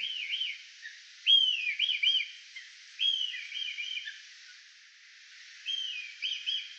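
A red kite calls alone in a series of high, wavering whistled phrases, about four bursts with short pauses between, clear with no talking.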